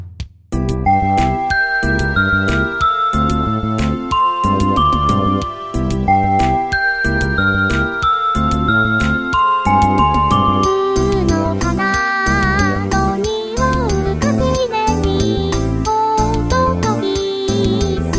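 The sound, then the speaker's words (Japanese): A reggae-style instrumental arrangement of the children's song 'Natsu wa Kinu' plays loud and steady, one chorus, with clavinet playing choppy riffs in place of guitar and a bouncing bass under a bright lead tune that grows busier and more ornamented midway. “こんな感じのものを組み合わせて、夏は絹。まずワンコーラス聴いてもらいましょうか。”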